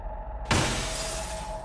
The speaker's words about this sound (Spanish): Era el ruido de una ventana estrellándose. Mi papá fue el que la rompió, pero tenía su motivo.